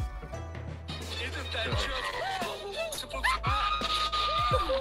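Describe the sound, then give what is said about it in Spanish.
A video game monster lets out a loud, shrill screaming cry, harsh and distorted, with swooping pitch bends over a low rumbling bed, lasting several seconds. “Literalmente, Victory Bell es un grito.”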